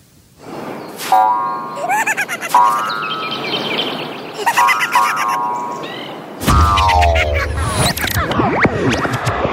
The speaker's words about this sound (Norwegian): Det, det var i hvert fall måker i bakgrunnen.